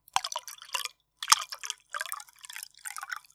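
Water splashes and trickles as it is poured into a glass, coming in several short, uneven bursts separated by brief pauses, with a bright, gurgling, dripping quality. No one speaks.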